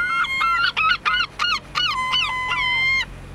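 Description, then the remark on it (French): A seagull calls loudly in Caen, Normandy, France: a rapid series of about eight harsh, nasal cries ending in a longer drawn-out wail, with no voices around. “Vous reconnaissez le chant des goélands Je suis à Caen, en Normandie,”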